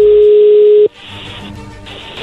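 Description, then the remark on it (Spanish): A steady, mid-pitched telephone tone from an outgoing call hums loudly for just under a second, then cuts off abruptly into faint, hissy line noise with a small click near the end. “A ver, ahí se está marcando, no haga ruido.”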